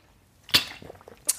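A quiet sip of water from a pink bottle: a sharp wet click, then soft, faint gulping sounds and a second small click near the end, with no talking.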